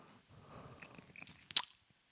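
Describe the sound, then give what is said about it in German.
Chewing of crunchy coated peanut snacks, a soft run of mouth crunches building to two sharp, bright crunches near the end, with no talking. “und jetzt als Vergleich, wie ein Live-Tasting wirklich sollte tönen.”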